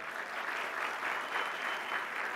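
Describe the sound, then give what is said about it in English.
A steady burst of audience applause fills the room at a marketing conference, applauding a statement that freedom of speech is the bedrock of the country; dense and even clapping from many hands at moderate volume, sustained throughout without voices. “Could I get a round of applause for that?”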